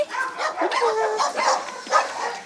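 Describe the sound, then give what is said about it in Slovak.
Several dogs at an animal shelter bark and yip continuously with an echo, a busy overlapping chorus with no clear pauses. “Chcete pozrieť aj na psíky?”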